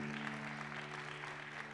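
An audience claps steadily throughout, a dense wash of many hands at moderate loudness, with a low electrical hum running underneath and no one speaking.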